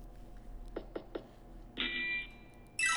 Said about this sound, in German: Ähm, meine Zeit hat angefangen mit dem ICQ-Ton. Das war sozusagen das Erste, was ich hier immer, ähm, ja, woran ich mich immer erinnern konnte an diesen kleinen ICQ-Ton.